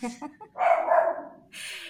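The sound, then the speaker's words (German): A puppy gives a few short, high yips followed by a longer, whining bark, with people talking around it. “Hundebabys, das ist halt kein stiller Podcast.”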